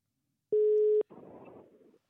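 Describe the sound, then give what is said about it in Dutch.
A single steady telephone ringback tone on an outgoing call sounds for about half a second, clear and fairly loud, then gives way to a short burst of hissy line noise before the line goes quiet. “Ik, ik druk de telefoon in. Hij gaat over. Hij gaat over.”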